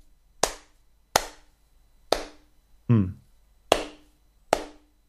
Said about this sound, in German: Okay, wow. Vielleicht noch zweimal hinterher klatschen und dann würde ich sagen, so, ich gehe mich jetzt schämen für uns beide.